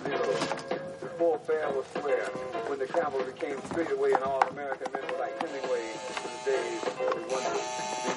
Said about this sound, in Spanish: Cal, con un delantal blanco, remueve puré de patatas en una cacerola